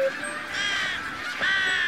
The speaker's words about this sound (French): À ce moment, le ciel devient tout noir et les oiseaux du monde entier viennent se percher près d'elle.